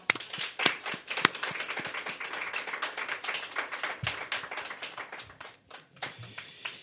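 A few people applaud, a dense, steady patter of hand claps running for about seven seconds, with a couple of sharper, louder claps near the start and no voices.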